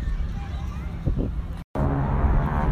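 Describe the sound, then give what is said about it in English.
A steady, low rumbling roar of airplanes passing overhead at an air show in New York, fairly loud and continuous, with a faint murmur of a crowd underneath and a brief dropout in the middle. “Can you hear the planes?”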